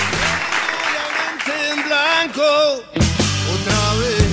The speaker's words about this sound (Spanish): Así que se merece un aplauso. No solo la banda, sino sus seguidores.